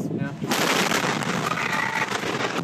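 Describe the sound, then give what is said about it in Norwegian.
A huge explosion at a fertilizer plant in West, outside Waco, Texas, filmed from a field nearby, booms suddenly from close range after a brief quieter moment, followed by a loud, sustained roaring rumble that fills the air. “Han fanger en brann i en gjødselfabrikk på kamera.”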